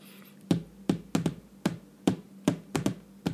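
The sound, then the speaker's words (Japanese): About nine crisp taps in a loose, uneven rhythm, imitating a small taiko drum (kodaiko), each a short dry hit standing out clearly against a quiet background with no talking. “これがあの太鼓ですね小太鼓ですね”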